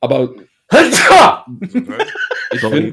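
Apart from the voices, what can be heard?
sneeze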